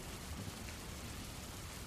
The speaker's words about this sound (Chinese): 听着窗外隆隆的雷声，夜色镇也已经进入了雷雨时节。